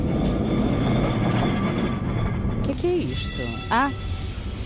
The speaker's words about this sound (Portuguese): Então, peraí, peraí, há uma parte é o elétrico. E é o elétrico. É o elétrico. Exato, há aqui uma parte que se reconhece melhor que é assim esta espécie de campainha.